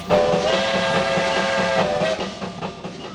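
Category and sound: vehicle, steam train whistle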